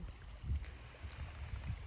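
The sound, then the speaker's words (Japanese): Soft, low water sloshing against the shore of the beach at Yamanoshita Seaside Park, with gentle swells rising and falling and two slightly stronger laps about a second apart, heard close by at the water's edge and fairly quiet with faint wind behind. “場所を変えて、まあ、もうちょっと波打ち屋の近くに来てみましたなかなかめったにないよねあ久しぶりにこの山の下海浜公園の波打ちまで来てみたんですけど”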